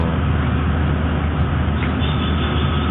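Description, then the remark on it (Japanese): Steady, even interior rumble of a moving Linimo maglev train in Japan, the country's first permanent magnetic levitation line, a constant low hum filling the cabin with no vibration, clatter or rhythmic track noise, and no voices. “リニモは、日本初の常設のリニアモーターカー（磁気浮上式鉄道）だったらしいです。”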